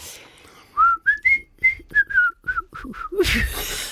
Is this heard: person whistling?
yes